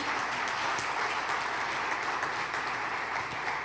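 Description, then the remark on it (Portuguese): A crowd claps for Jesus, steadily, a dense wash of overlapping handclaps at an even, fairly loud level throughout, with no pause or build. “Dá um aplauso a Jesus.”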